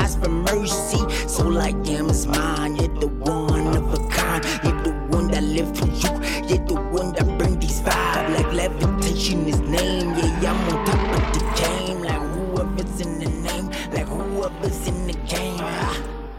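A rap track plays loud and close, with a heavy bass beat thumping in a steady rhythm under continuous rhythmic vocals, the music holding at a consistent level throughout.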